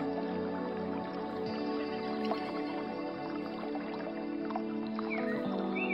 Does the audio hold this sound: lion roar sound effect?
no